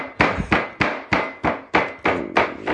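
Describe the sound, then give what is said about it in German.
A mallet pounds meat flat for schnitzel, with the door to the courtyard open, in a quick, steady rhythm, about nine dull, heavy thuds in a row, fairly loud, with no voices. “Und ähm, da gibt's halt relativ viel Schnitzel und weichgeklopftes Fleisch.”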